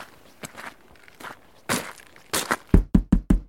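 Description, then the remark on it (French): A few crunchy footsteps approach, then four quick, loud knocks rap on the wooden door of a hut in a village in an even rhythm, with no voices. “frappa à la porte de la dernière cabane.”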